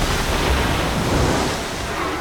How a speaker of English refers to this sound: Yes, it's headed to a cargo ship that in 1997 was making its way from Rotterdam in the Netherlands to New York when a rogue wave smashed into it.